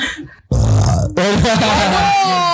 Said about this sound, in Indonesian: Gue gua gua gua sendawa lagi biasa gue habis minum kopi.